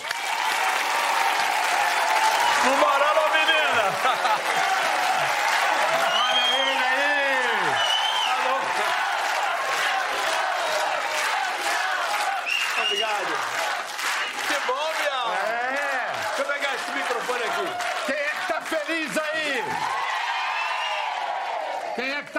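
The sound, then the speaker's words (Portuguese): A large TV show audience applauds and cheers loudly and continuously for over twenty seconds as a singer is introduced, a dense wash of clapping with shouts and whoops rising above it, and a single voice calling out. “Nós damos graças também e temos o orgulho de chamar para o seu aplauso o incomparável ….”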